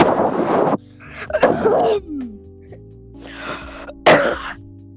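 Several loud, harsh coughs burst close to the microphone in uneven bursts, with short pauses between them and a faint hum in the background.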